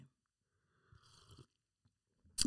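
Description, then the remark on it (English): A quiet slurping sip lasting about half a second, followed by a soft swallow, then a sharp louder noise at the end. No one speaks. “Another sip of this, man.”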